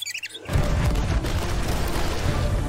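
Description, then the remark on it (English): After a brief quiet, tonal opening, a loud, dense roar of cannon fire in the video game Sea of Thieves erupts and continues without pause, heavy low rumbling blasts blurring together into a sustained barrage. “Well, I believe that now is the perfect time to use these cannons.”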